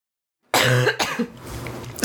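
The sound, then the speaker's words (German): A person coughs several times, loud harsh bursts in quick succession after a brief silence, with a throaty rasp between them. “Ähm, warte, ich muss husten.”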